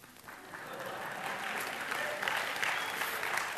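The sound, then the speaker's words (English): An audience at a sermon breaks into steady applause, a dense crackle of many hands clapping that swells slightly and holds at a strong, even level throughout, with no one speaking over it. “Oh, don't clap. I'm just halfway done.”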